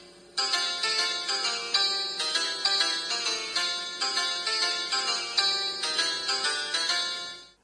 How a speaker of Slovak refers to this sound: Aj takéto zvonenie oznamuje študentom cirkevného gymnázia svätého Mikuláša v Starej Ľubovni koniec hodiny a pre nás je znamením, že dnešná lupa sa tiež blíži do cieľa.